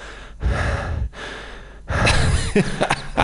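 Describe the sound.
A voice imitates a man's heavy breathing as heard in his phone-filmed videos: two long, loud breaths followed by a rougher, more ragged third one, with no words spoken.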